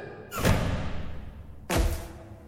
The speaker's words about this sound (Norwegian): Nå smeller det!